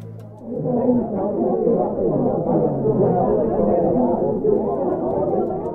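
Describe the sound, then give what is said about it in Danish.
A steady murmur of many overlapping voices from an outdoor café serving in Copenhagen fills the scene continuously at moderate volume, with no single voice standing out. “Altså som sagt, det er ikke mere øh, nogen diskussion om udeserveringen skal begrænses i Københavns Kommune.”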